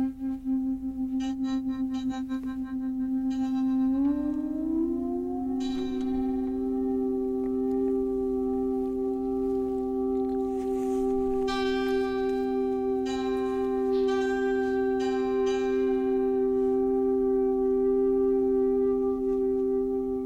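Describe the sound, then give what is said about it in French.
A moiré interference sound effect: steady synthetic tones that glide upward early on, then hold a loud droning hum with shimmering, beating overtones and faint high flickers, with no voices. “tu veux écouter un moiré, voir ce que ça donne”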